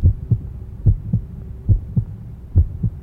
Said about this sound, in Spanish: Pero el latido era cada vez más fuerte, más fuerte. Creía que aquel corazón iba a explotar y se apoderó de mí una nueva ansiedad. Los vecinos podrían escuchar el latido de ese corazón.